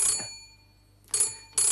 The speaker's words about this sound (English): Shall I answer the phone?